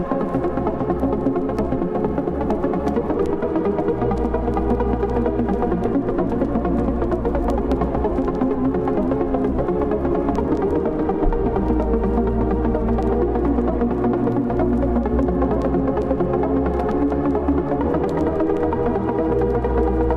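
An electronic dance remix plays from a white-label vinyl record, steady and loud, built on a deep, throbbing sustained bass under layered synth tones and fast hi-hat ticks, with no one talking over it.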